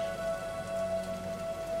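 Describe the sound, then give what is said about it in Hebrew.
Steady rain falls at midnight, pattering on a surface, a soft continuous hiss with faint droplet ticks, heard alone with a low constant hum beneath it. “יורד גשם.”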